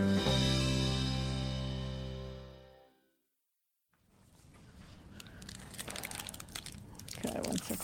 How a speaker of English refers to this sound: me just take a bite of something.